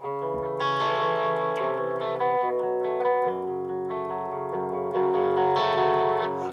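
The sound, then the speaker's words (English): A distorted electric guitar plays a song intro, thick sustained chords with a buzzy, saturated tone and a steady rhythm, loud and continuous with no voices. “It's now, the, the, the guitar sound on the intro is great.”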